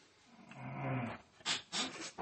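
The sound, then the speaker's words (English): A rumbling snore drags on for about a second, followed by a few short, breathy snorts in quick succession. No one speaks. “Can't be snoring on the podcast,”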